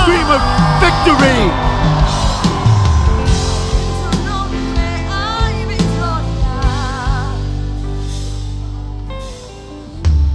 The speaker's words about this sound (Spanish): Ahora. Ahora. Ahora. Da un grito de victoria.